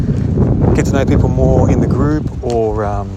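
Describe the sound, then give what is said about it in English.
Loud, constant wind buffeting a microphone outdoors on a windy day, a low rumbling roar that runs under a person talking throughout. “Pardon the wind; it's quite windy today.”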